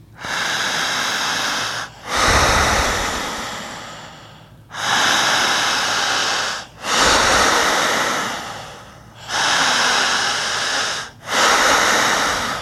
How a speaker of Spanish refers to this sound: Jalando el aire. Otra vez. Otra vez. Siga igual. Siga igual. Fuerte.